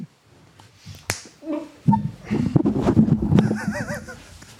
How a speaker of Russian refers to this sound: Как дубль там нормально был, нет? Нормально? Видно было, шлепок ты или нет?